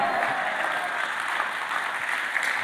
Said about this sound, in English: You're clapping in the the house right now.